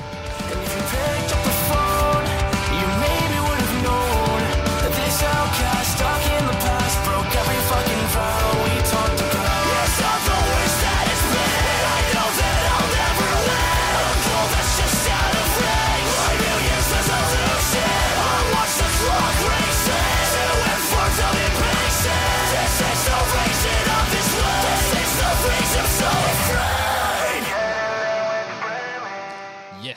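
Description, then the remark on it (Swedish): An emo rock song, the closing track of an album, plays loudly and steadily, with a dense wall of guitars, pounding drums and strained singing that holds full intensity before cutting off abruptly near the end. “Äntligen en hel skiva i denna emo-stil och det låter så bra.”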